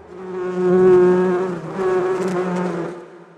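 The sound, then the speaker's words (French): A steady, droning buzz of honeybees around the hives fills the air, fairly loud, swelling and easing in two waves over a few seconds with no voices. “Je l'ai laissé à ses abeilles pour discuter avec Pierre Daget.”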